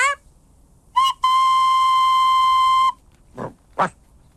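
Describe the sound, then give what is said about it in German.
A toy locomotive named Emma gives a short whistle toot, then one long steady shrill blast of nearly two seconds, followed by a couple of brief puffing bursts. No one speaks. “Jetzt, jetzt rasen schon die Lokomotiven kreuz und quer herum.”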